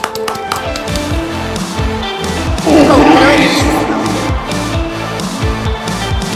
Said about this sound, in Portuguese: Vamos até aplaudir aqui esse episódio, é. que eu amei, gente.